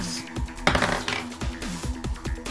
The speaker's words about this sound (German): Würfel bitte einen W6.